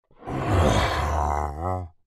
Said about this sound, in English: That's one of the Ravager's roars. It's this big, fearsome beast that has a little honk, honk, honk at the end of its roar.